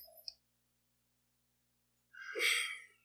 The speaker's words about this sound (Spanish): Este sonido, o sea, estás tomando es, la de o sea, mientras está entrando el agua a tu boca, respiras por la nariz. Pero se escucha todo el vaso de...